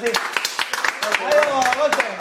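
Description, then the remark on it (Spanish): A small group claps in quick, uneven bursts, while several voices talk and call out over the applause throughout. “cerramos este episodio con un aplauso.”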